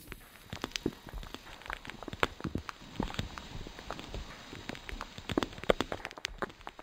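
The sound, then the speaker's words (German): A long series of sharp, dry cracks from a person cracking their own fingers, irregularly spaced, some louder than others, over a faint steady hiss with no talking. “Hör mal, ich kann meine Finger knacken lassen.”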